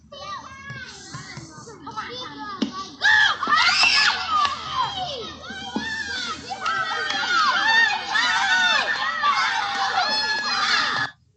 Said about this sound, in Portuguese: Era noite de Halloween e as crianças estavam brincando.